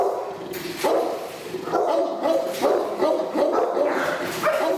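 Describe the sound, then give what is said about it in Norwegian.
A dark brown, muscular bulldog with a chain around its neck barks repeatedly from its cage at a dog boarding kennel in the morning, loud, deep woofs coming in a steady series of about five bursts with little pause between them, with no other sounds around. “Ivan, med mørkebrun pels, bulende muskler og en kjetting rundt halsen, står i buret sitt, stirrer i kamera og bjeffer.”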